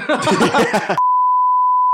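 censor bleep

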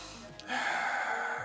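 deep breath in

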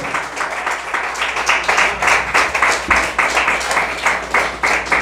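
audience clapping

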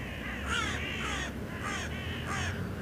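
birds calling outdoors

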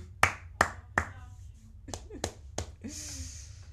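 audience clapping

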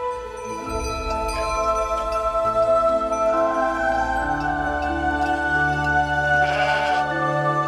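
sheep bleating

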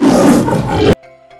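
lion roaring

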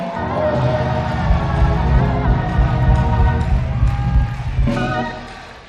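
audience clapping and shouting

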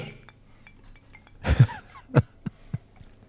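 two glasses clinking

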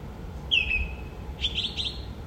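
song thrush singing

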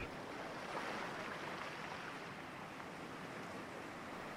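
sea waves

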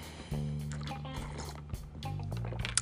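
sipping tea

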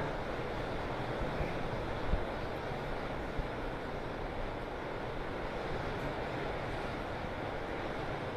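heavy rain

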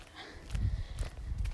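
horse hooves walking

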